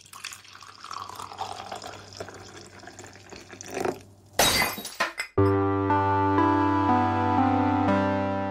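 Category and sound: impact, glass breaking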